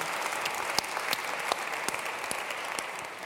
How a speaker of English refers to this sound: Deserves an applause.